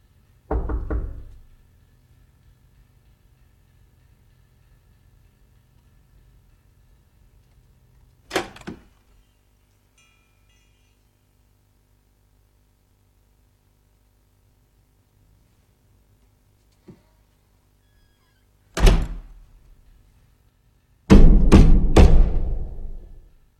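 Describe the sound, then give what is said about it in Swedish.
Three heavy, booming, ominous knocks on a door from the film The Babadook, as the Babadook begins to get into the house. They arrive at long, uneven intervals separated by near silence, ending in a louder quick cluster of thuds that rings out with some echo. “då kommer det tre knackningar fast i en helt annan, som, eh, en helt annan femma där mm. på dörren igen”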